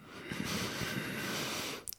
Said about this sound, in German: meine Nase ist so zu und so verstopft, dass ich die an sich gar nicht aufbekomme. Und wenn ich anfange, durch die Nase zu atmen,